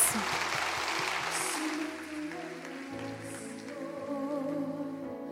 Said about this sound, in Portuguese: Aplauda ele. Glória a Deus.